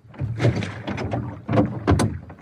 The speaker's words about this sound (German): Genau, ein Ruderboot.